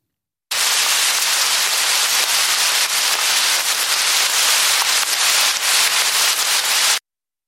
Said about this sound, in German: lichte Kronen aus langen Nadeln. Ein Kiefernwald. Kaum Hindernis für Regen. Hart fallende Tropfen. Trichter im Sand.